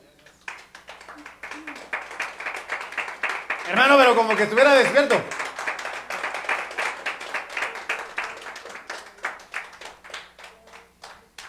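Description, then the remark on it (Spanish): An audience claps hands in a steady, rhythmic beat as an offering of claps to the Lord, sharp crisp claps repeating throughout, while a man's voice speaks briefly over the clapping partway through. “¿Te le ofrenda de palmas al Señor?”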